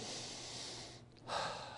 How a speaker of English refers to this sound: I can breathe deep. Thank you, Lord, for that.